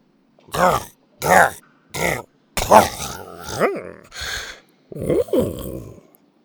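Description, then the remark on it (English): Three short, strained grunts in a steady rhythm, followed by a longer gurgling, belching roar and a final throaty burp, loud like a cartoon creature: a cartoon T. rex named Buck burping up a glowing pile of guck after a few hard hugging Heimlich squeezes. “After a few hard hugging squeezes, Buck burped up a glowing pile of guck.”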